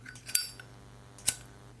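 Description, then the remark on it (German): A silver Zippo lighter, with the Hurricane bird and the words Miami University on the front, in use: two sharp metallic clicks roughly a second apart, its lid snapping and the wheel catching, over a faint steady low hum with no talking. “Ich werde jetzt kurz mal mein Zippo benutzen.”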